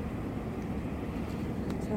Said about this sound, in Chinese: 看到什么？火车。火车啊！听到声音。听到声音啦！哒哒哒哒哒哒哒哒哒哒哒。